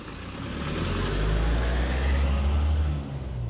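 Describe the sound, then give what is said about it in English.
A car passes by on a road beside a small field, approaching a village hall; its engine and tire rumble swell to a steady low roar before easing off toward the end, with no voices present. “Just let that par- car pass i a little field on my left.”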